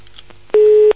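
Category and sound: signal or alarm, telephone busy signal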